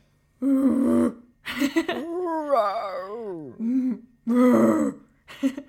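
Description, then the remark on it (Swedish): A person imitates a bear's growl: rough, throaty bursts with a wavering, moaning tone sliding up and down between them, repeated several times with short pauses. “Att då härmar man björnens mm. läte för att så här, meddela att nu kommer det en björn hörni.”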